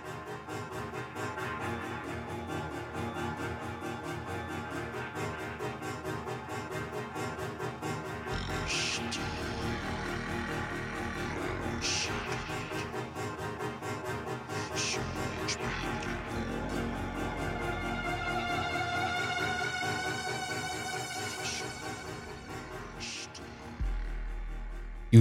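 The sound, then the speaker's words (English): A dark-toned music track plays steadily throughout, with deep sustained bass, layered droning tones and occasional bright rising synth swells near the end, no voices. “just listening to the dark tones of the song”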